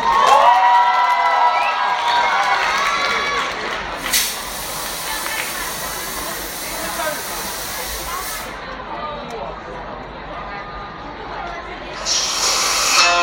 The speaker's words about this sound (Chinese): 掌声有请。